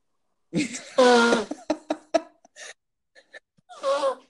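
blowing one's nose

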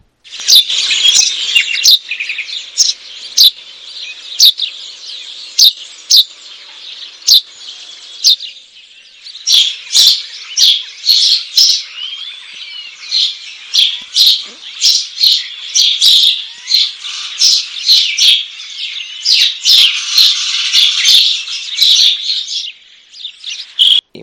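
house sparrow chirping

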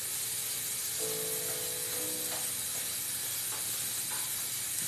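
water spraying

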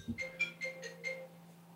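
telephone ringing

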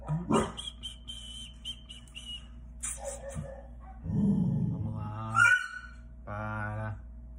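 dogs barking

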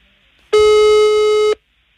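telephone call tones

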